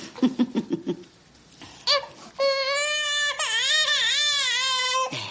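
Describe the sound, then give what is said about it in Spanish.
A baby who has just woken up whimpers in short bursts, then breaks into a loud, sustained high-pitched wail with wavering pitch, lasting several seconds before cutting off. “Katia disimula su aflicción al oír al bebé.”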